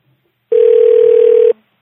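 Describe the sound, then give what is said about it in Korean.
A single steady telephone tone sounds for about one second, loud and clear with a slightly buzzy edge, then cuts off abruptly as a phone call is being connected. No one speaks. “제가 이분은 그 전화 통화를 한번 연결해 보려고 그래요.”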